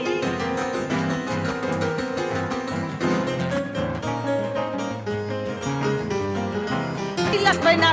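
A recorded Argentine folk song plays steadily, with a sung vocal over strummed and plucked guitar, warm and full at a constant moderate loudness, a brief vocal flourish near the end.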